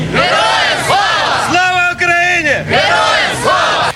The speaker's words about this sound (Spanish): Viva Ucrania, gritan agradecidos de la gesta heroica que libran los militares y su pueblo ante la agresión rusa.